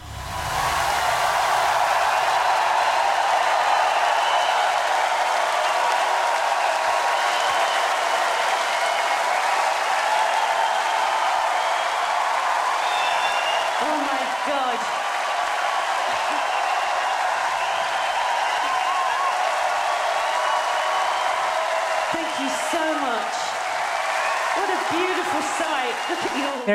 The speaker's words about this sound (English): And it is just people like flipping the fuck screaming their faces off